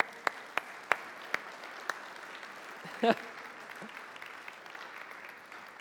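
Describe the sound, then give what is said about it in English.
A brief smattering of scattered claps, five or so sharp hand claps spaced out over the first two seconds, followed by a short burst of laughter, all fairly faint against a quiet background. “Should give the Avengers a round of applause?”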